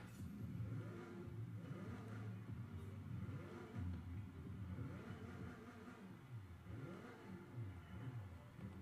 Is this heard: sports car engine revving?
yes